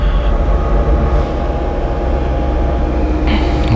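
A train rumbles steadily along the tracks, loud, with a continuous low roar and brief high metallic hisses near the start and end.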